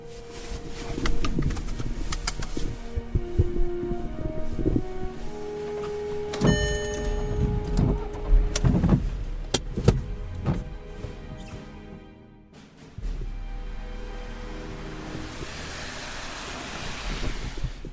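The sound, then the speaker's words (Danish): Outdoor roadside ambience in front of a grill bar in Ulfborg, with steady wind rumble buffeting the microphone, a blue car alongside and the whir of a power window, plus scattered clanks and knocks; no one speaks. “sidder ude foran øh, grillbaren her i Ulfborg.”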